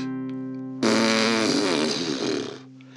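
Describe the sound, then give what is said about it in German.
A loud, rough buzzing imitation of an airplane, likely made with the lips or voice, as part of a slow song being made, lasts about two seconds over a steady sustained musical tone, then fades. “Fällt der Apfel dem Knu vor die Füße und darüber das Flugzeug macht”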